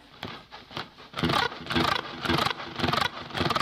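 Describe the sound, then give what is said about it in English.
Guitar-string rakes made by touching the strings and moving into the last note: a soft, muted scratchy start gives way to five louder, noisy swipes in a steady rhythm, each a bright rasp across the strings, with no voices. “So I'm I'm just creating this scraping sound by just touching the strings and then just moving into the last note that I'm going to play.”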